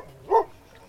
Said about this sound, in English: stop barking at the firefighters.